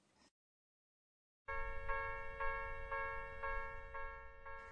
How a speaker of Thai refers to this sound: นี่เป็นเสียงสัญญาณที่จุดตัดทางรถไฟใช่ไหมคะในภาษาญี่ปุ่นเรียกเสียงนี้ว่า คังคังคัง